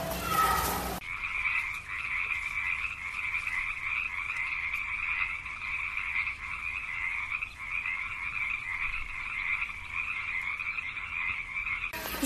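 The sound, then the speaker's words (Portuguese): A dense chorus of frogs croaking continuously in a frog pond, a steady buzzing, trilling mass of calls that fills the whole recording at moderate loudness, with no voices. “Lá tem um lago de sapo, é, é, em um dos lugares mais grandes.”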